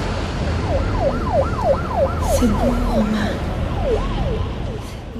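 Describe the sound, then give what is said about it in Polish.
A fast, looping siren rises and falls in quick repeated sweeps over a thick, rumbling wash of processed city noise, loud and steady throughout, with no voices. “Tutaj na poziomie mm, dźwiękowym muzyka jest e, rzeczywiście taka industrialna, ale na poziomie dźwiękowym też mamy odgłosy mm, miasta w jakiś sposób przetworzone.”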